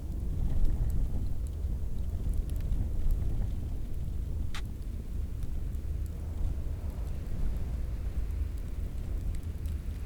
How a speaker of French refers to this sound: Il suffit d'écouter les souffles du vent, des airs de désert.